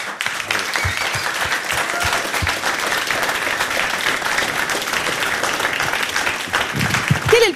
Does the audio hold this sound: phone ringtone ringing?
no